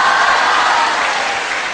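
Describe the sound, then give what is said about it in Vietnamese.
Steady audience applause, a dense wash of many hands clapping at an even, loud level throughout, with no voices standing out. “các bạn hãy cho một trang tay nữa để à, cảm ơn bạn của mình”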